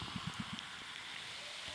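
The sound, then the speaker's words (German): Cola from a just-opened can is poured into a glass: a steady, soft fizzing hiss runs throughout, with a quick series of low glugging pulses at the start. No one speaks. “Nee, für den Geschmack gieße ich das mal in Glas.”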